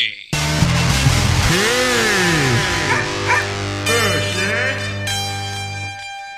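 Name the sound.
dog barking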